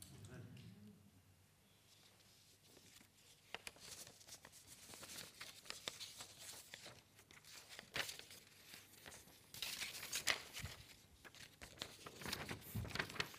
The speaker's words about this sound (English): Why is it paper doesn't do what you want it to do?